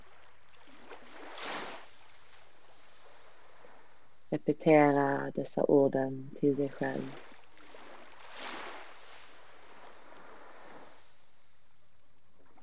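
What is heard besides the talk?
ocean waves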